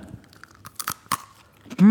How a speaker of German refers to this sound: Ich esse gerade, weil ich heute noch gar keine Zeit hatte, irgendwas zu essen, esse ich gerade so kleine Brezen, so, ähm, ja, kleine trockene Brezen. Wollt ihr mal hören?